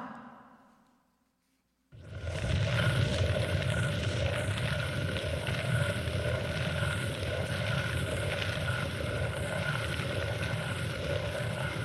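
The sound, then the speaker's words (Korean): After a brief fading hush, a stone millstone (maetdol) turns, grinding soybeans and wheat with a continuous loud, gritty rumble, steady and unbroken, with no voices. “무슨 돌이 굴러가는 소리 같지 않아요?”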